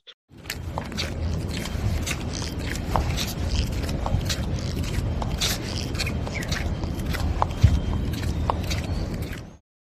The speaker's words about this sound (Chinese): 所以我还其实挺想在最后一趴放一些对我记录到的深圳夏天声音，因为其实挺经典的。就一个是我们刚才提到的洞洞鞋，我穿洞洞鞋的声音。